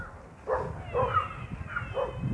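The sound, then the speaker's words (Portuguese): A dog barks several times in quick succession, a run of short, yappy barks at moderate volume with a bit of background hiss and no voices. “Esse cachorro doido.”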